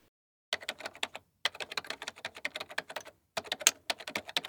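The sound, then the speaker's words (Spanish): Rapid, fluent typing on a keyboard as someone writes a letter, clear, with dense clusters of key clicks broken by two short pauses. No voices. “Alguien escribe una carta.”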